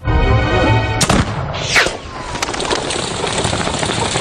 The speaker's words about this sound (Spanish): El segundo disparo del Orleans anduvo más cerca.